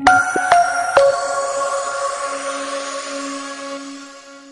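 Sevillanas music ending: three sharp strummed chords in quick succession, then a long ringing chord that slowly fades, with no voices.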